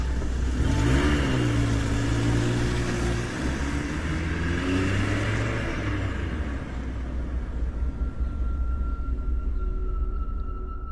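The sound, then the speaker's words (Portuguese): A car engine revs up with rising, wavering harmonic tones, then settles into a steady rumble as the vehicle pulls away out of a parking lot, loud throughout with no talking. “Entrei, passei o endereço para ele e saímos dali.”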